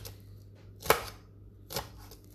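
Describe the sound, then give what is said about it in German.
Two crisp knife strikes against a cutting board, spaced about a second apart, fairly loud over a quiet low hum, as a knife dices food into small cubes. “einen Hälfte und dann das gleiche mit der zweiten Hälfte. So. Dann hast du immer schöne kleine feine Würfelchen.”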